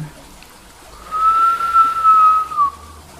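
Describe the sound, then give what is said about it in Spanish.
A steady, thin whistle drawn in through lips pursed in an O shape, an inhalation during a breathing exercise, holding one pitch for about a second and a half before tapering off, moderately loud with no talking. “y vas a empezar a fruncir los labios en forma de O y vas a inhalar con un silbido.”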